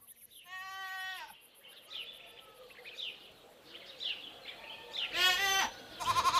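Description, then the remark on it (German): A goat bleats loudly at a mountain goat farm at the foot of a volcano, then a second wavering bleat follows a few seconds later, with faint buzzing insects and farmyard ambience in between. “Ja, ich mache mich auf den Weg äh, in Richtung Tankstelle, äh, beziehungsweise in Richtung der Bergziegenfarm.”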